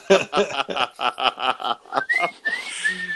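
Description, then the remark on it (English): A person whistles a quick melody as a solo, starting with rapid breathy staccato notes and then sliding into clear, sustained pitched tones, fairly loud with no talking. “And the whistling solo.”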